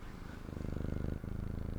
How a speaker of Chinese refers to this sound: 你有听到我家的猫在呼噜噜吗？ 声呀， 它在，它现在在麦克风两公分。